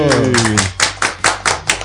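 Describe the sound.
A round of applause for a journalist and photographer seated at the table: steady, evenly spaced claps, about seven sharp slaps at a brisk rhythm, with a voice trailing off at the start before the clapping carries on alone.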